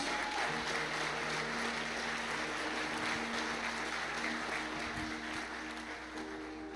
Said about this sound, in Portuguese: Você pode aplaudir e celebrar a Deus por isso?